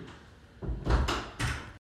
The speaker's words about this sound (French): Il a bien fermé la porte derrière lui.